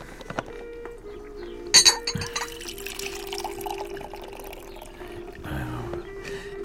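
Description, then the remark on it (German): Coffee pours into a cup in a steady liquid stream with a rising gurgle, broken near the start by a couple of sharp clinks of china, and a quieter trickle toward the end. “Gehst du mir noch einen Schluck Kaffee ein?”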